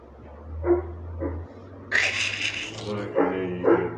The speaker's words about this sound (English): That's me messing with the dog.